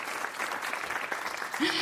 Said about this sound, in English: Hey, can we cue some applause or something here now for Rich, who's working so hard to keep us all safe from scammery?